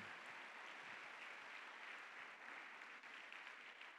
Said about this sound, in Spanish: Dale un aplauso a Cristo, aleluya. Dándole gracias.